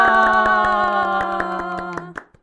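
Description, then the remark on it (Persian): A quick burst of sharp, steady hand claps over a sustained bright tone, loud, fading out after a couple of seconds with a few last scattered claps. “پس بیاین براش یه کف بزنیم هورا”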